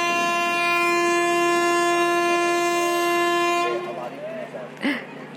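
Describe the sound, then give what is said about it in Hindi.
A passing train sounds one long, steady horn blast for several seconds, fairly loud, then it cuts off, leaving a softer rumble and scattered faint noises. “क्या अभी अभी तुमने सिंचन की आवाज़ सुनी”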